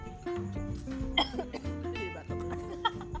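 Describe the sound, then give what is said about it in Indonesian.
Someone coughs a few times in quick bursts, fairly loud, with a low steady background hum underneath and brief throaty vocal sounds between the coughs. “kalau kayak gini masuk podcast nggak apa ya terlihat manusiawi terdengar manusiawi ya ada batuk-batuknya ya”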